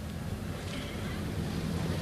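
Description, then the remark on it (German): A helicopter hovers in place beside a tower about to be demolished by blasting, producing a continuous heavy drone with a deep rumbling hum and a windy rush layered over it, steady and fairly loud throughout. “Der Hubschrauber bleibt stehen.”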